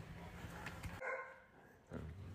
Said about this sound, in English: All right, the dogs are getting better. They're not freaking out